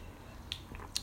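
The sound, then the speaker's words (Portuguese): A quiet sip of water: a couple of small wet mouth clicks and a soft swallow in near silence, with no talking. “tomar uma água.”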